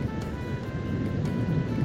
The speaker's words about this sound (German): Das ist das Meer ganz schön laut, oder? Das ist richtig, richtig schön.